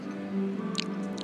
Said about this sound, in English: I'm chewing croissant.